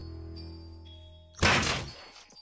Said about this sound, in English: I close the shaft over the gap, but Sargo starts bashing at the door. Each strike sends vibrations through my arms.